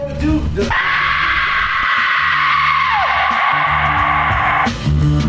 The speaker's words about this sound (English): I need an ending song, yo. Just, just throw some screams on.